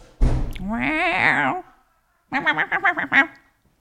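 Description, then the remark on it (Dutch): A female cat meows persistently at a door: one long, drawn-out wavering meow, then after a brief pause a quick string of short, chirping mews. “Ja, die poes geeft niet op.”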